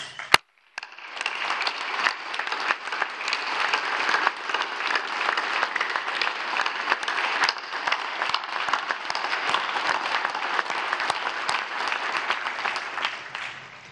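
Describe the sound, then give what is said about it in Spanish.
Sustained applause from a large crowd for General Secretary Luis Crescencio Sandoval González of the Mexican army, a dense, steady clatter of many hands clapping that starts abruptly after a brief click and holds at an even, fairly loud level with no voices. “Y le aplaudimos.”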